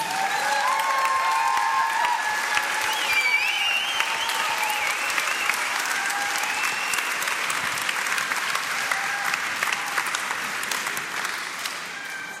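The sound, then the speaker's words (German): An audience at a blessing service applauds its teams steadily, a dense wash of clapping that holds at an even, fairly loud level for the whole stretch, with a few faint whistles and cheers mixed in and no talking. “Noch einen riesen Applaus nochmal für unsere Teams.”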